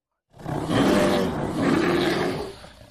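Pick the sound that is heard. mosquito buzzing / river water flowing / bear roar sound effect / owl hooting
bear roar sound effect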